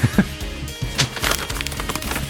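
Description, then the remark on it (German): Crisp rustling and crackling with several quick bursts as a radio news reader turns and shuffles paper pages, moderately loud with no voices. “das Seiten und Blättern der Nachrichtensprecher im Deutschlandfunk”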